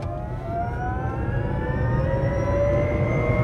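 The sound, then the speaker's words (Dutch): The electric motor of a Micro Lino microcar whines steadily while driving in traffic, its harmonic tones gliding slowly upward as the vehicle speeds up, over a constant low rumble of road noise; no one speaks. “Het is elektrisch, dat hoor je ook. Het lijkt soms wel of je in een tram of een metro zit.”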